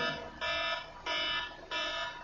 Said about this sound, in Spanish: la alarma, eso no.